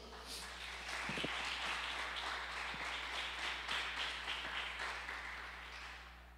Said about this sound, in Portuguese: Dá um aplauso ao Senhor então.